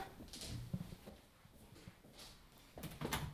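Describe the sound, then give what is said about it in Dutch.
A refrigerator door in a utility room is handled as items are taken out, with a few soft thumps and clicks spread over a few seconds, including a faint rustle and a final seal-like bump near the end. The handling is quiet. “Je haalt ze uit de koelkast, en ja.”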